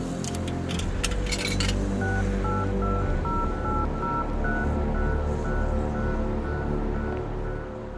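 Telephone keypad dialing tones beep in a steady series of short, evenly spaced presses, following a few sharp clicks and clatters at the start, all over a low rumbling background.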